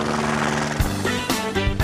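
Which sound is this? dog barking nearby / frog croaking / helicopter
helicopter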